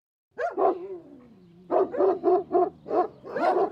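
A dog lets out a drawn-out whining yelp, then barks five or six times in quick succession, loud, with no one talking.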